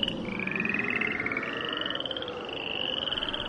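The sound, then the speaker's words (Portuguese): A dense chorus of frogs coming out of the waters over the land of Egypt, croaking and trilling continuously, many voices overlapping in a steady pulsing drone with high-pitched calls riding on top, fairly loud, no talking. “E as rãs saíram das águas e cobriram todo o país.”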